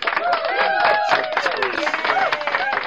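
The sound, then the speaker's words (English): A burst of crowd applause with cheering voices, steady and fairly loud for about three seconds, like a canned applause effect. “Give yourself a round of applause”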